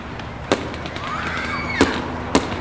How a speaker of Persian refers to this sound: صدای ترقه بازی شهر را برداشته بود